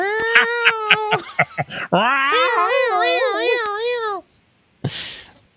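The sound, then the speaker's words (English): Someone mimics a cat with their voice, as the meow that a cardboard purpose-built cat extraction vehicle makes instead of a siren: a few quick choppy yelps, then one long, wavering meow that rises and falls in pitch, ending with a short breathy puff. “It actually does meow.”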